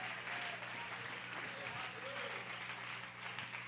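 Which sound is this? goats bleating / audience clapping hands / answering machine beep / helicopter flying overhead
audience clapping hands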